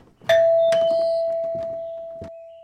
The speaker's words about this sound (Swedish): Han plingar på en gång till.